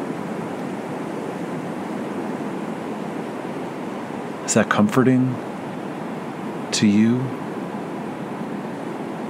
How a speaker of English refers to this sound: the expanse of the sea rising and falling, ebbing and flowing, coming and going.